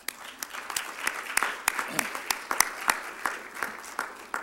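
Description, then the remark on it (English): An audience applauds after a testimony, a steady patter of many hands clapping at a fairly brisk, even rhythm, with sharp individual claps standing out over a soft wash of crowd noise. “I know all of them didn't come to all, but I feel like y'all give some applause.”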